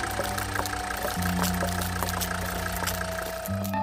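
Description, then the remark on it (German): The engine of a newest-model MBW car standing in an open garage idles steadily with a low, continuous hum and faint rhythmic ticking, a deeper drone shifting slightly partway through. No voices are heard. “Und warum läuft die die ganze Zeit im Standgas?”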